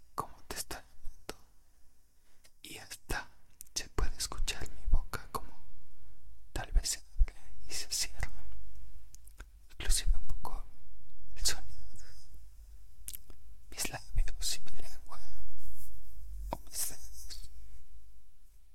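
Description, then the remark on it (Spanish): Soft whispering with crisp mouth clicks and breathy sibilants, intimate and quiet, broken by short pauses in an ASMR style. “Los videos y los audios de ASMR.”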